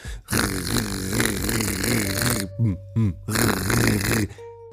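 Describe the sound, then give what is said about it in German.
A voice imitates open toilet doors rattling and vibrating, with a loud, buzzing, gravelly vocal rumble, sustained in long bursts broken by a few short sputters and brief pauses. “Das heißt, wenn du mal da kurz auf Toilette gegangen bist, hast du die ganze Zeit nur hinter dir die Türen gehört, wie sie”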